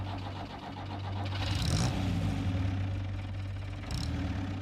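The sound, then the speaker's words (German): A truck engine turns over and catches, then runs with a steady low rumble and rising revs as it pulls away along a dusty road, carrying a woman and her children to the train station; loud, with no voices. “Ein Truck holte Ida May und ihre Kinder ab und brachte sie zum Bahnhof”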